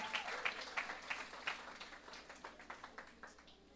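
An audience at a morning worship service applauding for Jesus, with a dense patter of claps under sharper, roughly rhythmic hand claps that gradually soften and thin out toward the end. No voices are heard.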